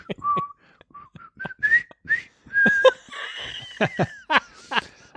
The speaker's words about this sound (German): Delfine haben tatsächlich besondere Pfeifsignale, mit denen sie sich ja. gegenseitig erkennen und ansprechen.